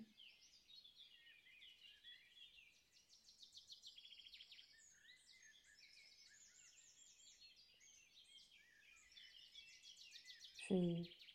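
A steady chorus of birds chirps and trills continuously, many high, twittering calls overlapping, with a brief voice sounding at the very end.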